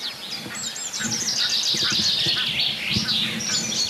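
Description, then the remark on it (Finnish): A common chaffinch sings amid a busy dawn chorus, bright rapid trills and chirps from several birds overlapping continuously, moderately loud, with faint low rumbling underneath, a black grouse bubbling in the background, and no voices. “Sano vaan rohkeasti sitten laji sieltä. tulee peippo.”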